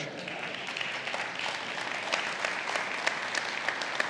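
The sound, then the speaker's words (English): Soft, steady applause from an audience at Cavanaugh Church, a continuous patter of many hands clapping at moderate volume, even throughout without any voices standing out. “That, that was a gentle ladies' clap.”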